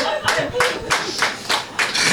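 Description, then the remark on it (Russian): Thin, sparse applause from just a few people: loose, uneven handclaps for about two seconds with no cheering or voices, giving a half-hearted, underwhelmed feel. “Это очень грустные аплодисменты, но спасибо.”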